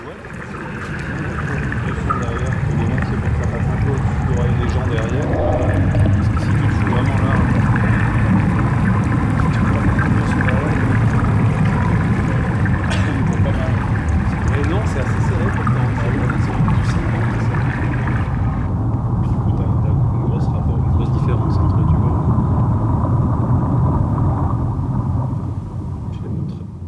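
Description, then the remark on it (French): Hydrophone field recording of glacier ice and meltwater, used in the performance Melt: a dense, steady rush of gurgling, trickling water with scattered crackles and pops. It stays loud throughout, and the brighter hiss drops away about two-thirds through. “ont plongé leurs micros, hydrophones et capteurs sismiques au fond des crevasses, dans les torrents glaciaires et dans les replis des moraines”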